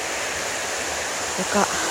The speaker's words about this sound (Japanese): 今富士山の見える集落藤川町平林からお届けしていますこの水の音も聞こえるでしょうか集落の真ん中に流れる